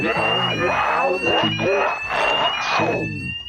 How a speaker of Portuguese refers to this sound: Deu, deu uns curtos e depois de repente você conseguiu ligar e começa a soar o alarme, começa a tocar um aquele som super irritante.